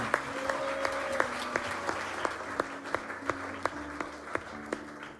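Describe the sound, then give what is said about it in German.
An audience applauds in a dense, steady wash of clapping, with sharper claps landing in an even rhythm about three times a second, and a low sustained tone humming underneath. “Lass ihm doch Applaus geben.”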